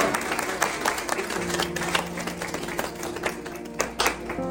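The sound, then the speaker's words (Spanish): Steady audience applause, many hands clapping in a dense, continuous patter at moderate loudness, with a few sharper claps standing out and a low murmur underneath. “un aplauso para mi madre, por favor.”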